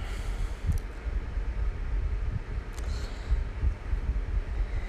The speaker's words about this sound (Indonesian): kalau ada suara-suara angin ya karena dekat suara eh dekat kipas angin